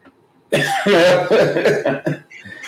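A loud coughing fit: several harsh, rough bursts follow one another over about two seconds, with no speech around them.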